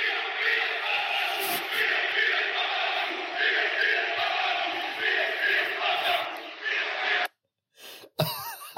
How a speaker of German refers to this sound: Die haben die ganze Zeit äh, so Böller gezündet und haben die ganze ja. Zeit gesungen und sowas